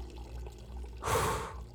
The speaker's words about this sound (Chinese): 流水声哗哗作响。